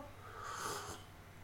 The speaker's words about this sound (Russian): Хм, не знаю, было ли слышно, как я сербаю, э, к слову, цикорий пью.